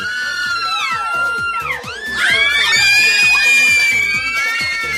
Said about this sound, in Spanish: chicas, un grito, por favor.